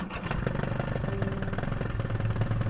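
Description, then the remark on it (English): An Indonesian fishing boat's diesel engine starts up and chugs steadily with a rough, rhythmic, tractor-like knocking, loud, running continuously with no voices over it. “like a gunda gunda sound, tractor sound, and they start their boat up and they sail away.”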